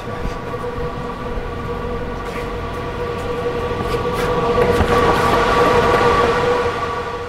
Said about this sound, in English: That humming you hear? It's the sound of hundreds of fans blowing past hundreds of little computers. They're on 24 hours a day, cranking through complicated math problems, making bitcoins.